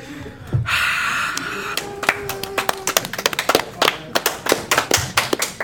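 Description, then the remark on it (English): A breathy hiss gives way to a rapid, uneven flurry of sharp hand claps and taps, fairly loud, mimicking the scurrying of many tiny ant legs. “Just so they, many pairs of legs clapping.”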